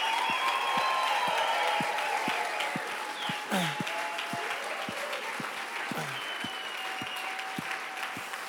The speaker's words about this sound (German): Komm, lass uns mal, lass uns mal einen richtigen fetten Applaus geben.